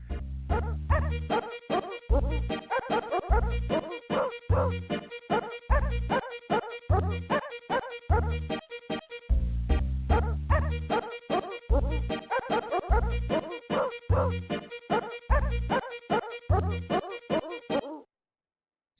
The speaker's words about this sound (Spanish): hay un nivel donde el fondo del nivel es una foto de una mujer que cada tanto abre la boca y tiene colmillos mientras suena una especie de vals con ladridos de melodía